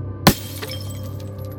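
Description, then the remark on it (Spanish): A pickup truck's rearview mirror is hit by a gunshot and shatters in one sharp, bright crack of breaking glass, followed by a brief tinkle of fragments over a steady low rumble of howling wind. “El espejo retrovisor de la camioneta voló en mil pedazos.”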